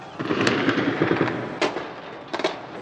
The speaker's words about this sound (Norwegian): Skyting og bråk. Ja, slik hørtes det ut fra hotellrommet mitt i flere dager. For da Mubarak-tilhengerne veltet ut i gatene, snudde stemningen dramatisk i Kairo.